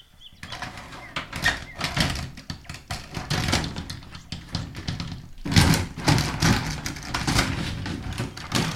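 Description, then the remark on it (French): A shower's sliding door rattles and rumbles along its track, with a series of scraping and clattering movements that swell louder partway through, no voices present. “Ça c'est le bruit de la porte coulissante de la douche.”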